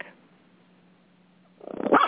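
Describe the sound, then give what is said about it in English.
After a stretch of near-silence with a faint low hum, a pup suddenly barks loudly, protecting his house: a short burst of rough barking that fills the final half-second. “the pup is protecting his house.”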